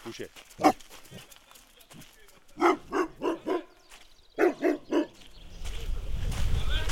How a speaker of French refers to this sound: Et là, au milieu de nulle part, il y a un entrepôt, des caravanes, une petite maison, quelques voitures. Ah, un chien, voilà. Chut, couchez, couchez,